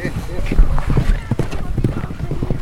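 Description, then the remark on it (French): Horse hooves clip-clop in a steady, uneven rhythm, mixed with a voice speaking over them. “Sans nos chevaux, on n'est rien.”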